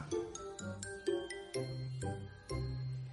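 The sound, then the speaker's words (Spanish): A short musical jingle with a quick sequence of bright, ringing notes over a low sustained tone, sounding oddly distorted and warped, played alone with no voices for about three seconds. “No sé por qué esta canción se escucha así, güey.”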